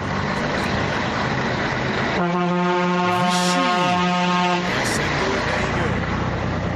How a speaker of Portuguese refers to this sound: buzina de trem, hein?